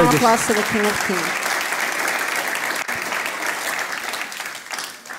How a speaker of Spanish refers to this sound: Dale ese fuerte aplauso al Rey de